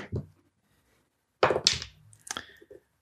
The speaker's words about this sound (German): So, dann würfel mal.